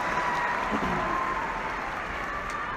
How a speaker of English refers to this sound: And before I get started, can we please clap it up for the class of 2018? I am so proud of you guys.